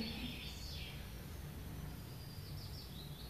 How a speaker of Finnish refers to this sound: Pajulintu.